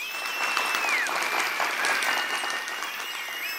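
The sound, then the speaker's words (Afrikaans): The animals at an animal concert cheer her on. A crowd applauds steadily, a dense wash of clapping with scattered cheers and a few high whistles, sustained and fairly loud throughout. “diere juig haar toe”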